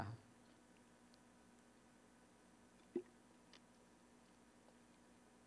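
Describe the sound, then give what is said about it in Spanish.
Quiet sips of water with a soft gulp about halfway through, a few faint mouth clicks around it, and otherwise near silence with no talking. “Perdón que tome tanta agua, como algunos saben, tuve cirugía de las cuerdas vocales recientemente y pues tengo que tomar agua.”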